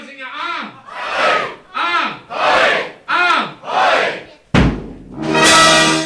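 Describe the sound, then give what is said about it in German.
A crowd roars a triple carnival cheer as a greeting on MDR Thüringen's Kulturnacht, three call-and-response rounds of loud chanted shouts, then a sharp crash and loud, brassy band music bursts in. “Und dazu begrüße ich Sie mit einem dreifach donnernden.”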